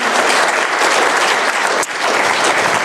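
An audience applauds steadily to thank a guest at the end of a talk, a dense, continuous wash of many hands clapping at full volume with no break, holding level for the whole stretch.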